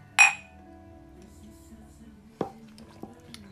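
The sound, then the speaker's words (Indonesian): A bright, ringing clink of glasses tapped together in a cheers, followed by a duller knock and a faint tap a few seconds later over a low background murmur. “We need Wait. to cheers.”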